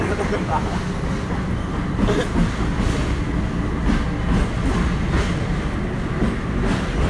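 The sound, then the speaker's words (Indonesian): Another train rolls past right beside the people chatting at the edge of the railway: a loud, continuous low rumble with rhythmic clacking of wheels over rail joints that lasts the whole time, muffled voices faintly underneath. “Oh, ada kereta lagi.”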